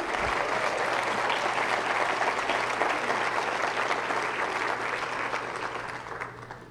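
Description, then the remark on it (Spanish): An audience applauds for Jesus together in a dense, steady wash of clapping that holds for several seconds, then begins to thin and fade slightly toward the end, with no voices standing out. “Sí, démosle el aplauso a Jesús.”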